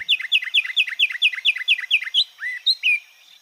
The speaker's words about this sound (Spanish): El trino del pinzón con el rostro forma parte del Banco de Sonidos de Aves Colombianas recopilado por el Instituto von Humboldt y la Universidad de Cornell.